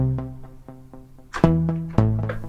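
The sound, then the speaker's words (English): A piano plays a quick run of single notes that build to two louder struck chords, the tone muffled and dulled as if heard through water. “Underwater, let's listen to that.”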